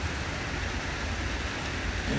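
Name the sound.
rain falling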